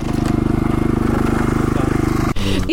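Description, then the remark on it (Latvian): A loud, steady engine drone from a cranberry harvesting combine, chugging with a fast rhythmic pulse, briefly dipping near the end before running on. “Ar dzērveņu kombānu ogas vārds”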